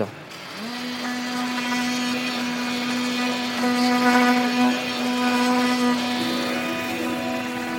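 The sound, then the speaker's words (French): Workshop machinery runs steadily with a loud, continuous motor whine and a buzzing harmonic drone that holds nearly unchanged for the whole stretch, unbroken. “Mais pour nous, c'est le bruit des machines qui tournent, c'est le bruit, entre parenthèses, de l'économie qui fonctionne, de l'entreprise qui va bien, etc.”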